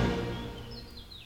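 small birds chirping

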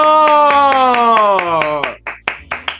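applause

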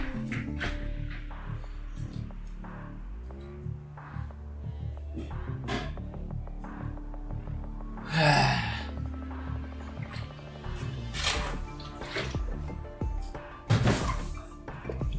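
person drinking

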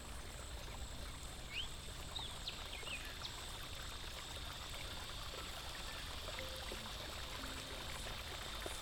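flowing river water

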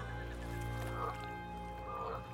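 small frog croaking

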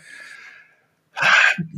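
sneeze

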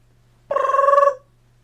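phone alarm ringing

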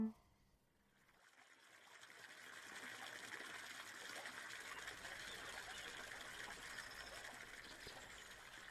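river water flowing

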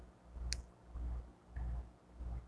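fidget cube clicking

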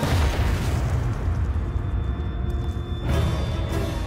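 bomb explosion sound effect

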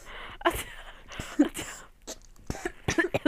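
coughing

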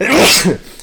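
sneeze

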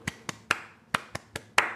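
people clapping

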